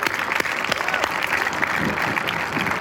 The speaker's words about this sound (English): Um, let's give a round of applause to ….